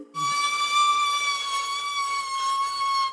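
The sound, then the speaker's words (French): A shared Vélib electric rental bike gives a loud, piercing squeal, a steady high-pitched screech held for about three seconds, with no voices. “Moi, ce qui me marque le plus, c'est le bruit des vélos électriques qui crissent très très fort.”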